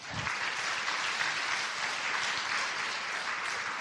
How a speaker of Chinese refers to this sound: 有讲过公公婆婆的辛苦给你儿子听的举手，哇，不简单！来，掌声鼓励一下哈。